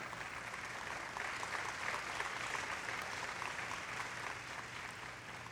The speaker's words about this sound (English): If you're going to give him a clap, you better make it a strong one.